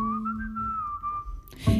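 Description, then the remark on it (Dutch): A clear, sustained whistled birdsong tone that wavers gently in pitch for over a second, then cuts off into a brief burst of noisy rustle at the end. “De vogels fluiten het hoogste lied.”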